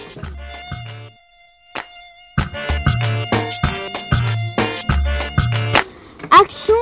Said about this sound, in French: Euh, une colonisation de moustiques, c'est plein de moustiques.